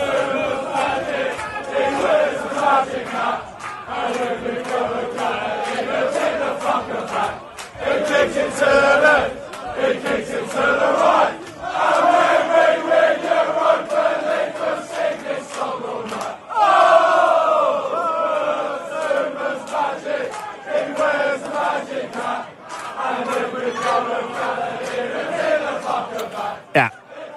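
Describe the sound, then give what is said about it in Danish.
West Ham fans sing a loud, rhythmic terrace chant in support of Kurt Zouma in unison, voices swelling together continuously for the whole stretch with a roaring quality. “Vi kan lige prøve at høre en lille bid af sangen på poppen her”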